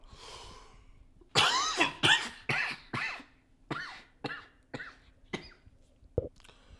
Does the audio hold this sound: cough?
yes